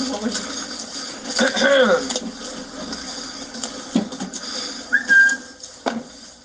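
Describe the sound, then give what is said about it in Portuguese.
A man, a suspect being arrested at a house in Teresópolis, whistles briefly while mocking the police, first a wavering little phrase and later a short, clear rising note, amid voices talking and busy background noise. “Ao ser preso, ele caçoou dos policiais, bocejou e até assobiou.”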